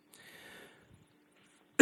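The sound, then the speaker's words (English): A person coughs: a raspy, drawn-out hack, a short quiet pause, then a sudden loud, sharp cough at the very end. No one speaks. “I think we need a button that when I like put my hand here, the button gets pushed and you silence my cough.”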